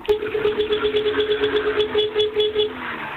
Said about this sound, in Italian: Lo senti, quella Fiat proprio, sì. Faccia sentire? Sì, sì. Sente? Faccia clacson e gas, clacson e gas, vada.